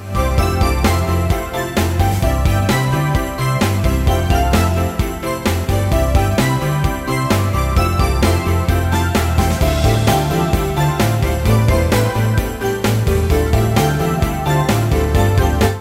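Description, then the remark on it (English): Soft, mellow Christmas-style video game music from Act Two plays continuously at a steady level, with warm bass, layered chords and light chiming, tinkling tones, and no voices. “It, they bring it down even more and you can really tell like this is same vibe but like after midnight let's say Oh yeah, this is like Christmas in Tokyo or New York City.”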